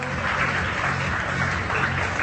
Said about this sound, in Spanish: Entonces, vamos a darle un aplauso aquí todos a... Tímido. ¡Ah, tímido!